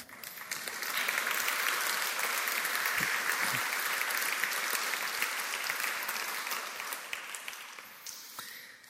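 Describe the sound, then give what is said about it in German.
An audience applauds for Jesus, clapping steadily for several seconds, a dense wash of many hands that swells quickly, holds, then thins out as the clapping tapers off at the end. “Das ist doch ein Applaus für Jesus wert.”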